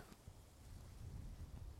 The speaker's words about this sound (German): Oh, hört mal wieder. Wie das rauscht. Das Laub.